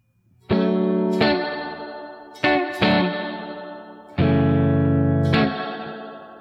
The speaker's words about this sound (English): So if I if I turn it off, you should be able to hear just the the spring reverb that I have in the amp modeler.